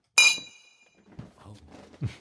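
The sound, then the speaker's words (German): A bright glass clink rings out once in a toast, its high tones lingering briefly, followed by soft shuffling and a dull knock as the glasses are lowered. “Ja, dann Prost, ne? Ja, Prost.”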